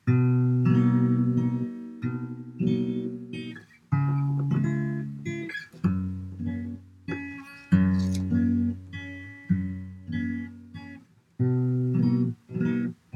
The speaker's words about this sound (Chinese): 那我先举一个例子，就是它可以当做一个过渡和弦啊，比如说我现在在弹这样子的一个和弦行进，请大家听一下。